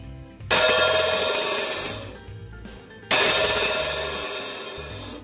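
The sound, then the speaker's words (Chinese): An open hi-hat on a drum kit is struck twice during a drum kit demonstration at 响地音乐 in Nangang, each hit ringing out as a loud, bright, hissing cymbal wash that sustains for over a second before fading or choking off. No one speaks. “我来听它有点 open 的声音。”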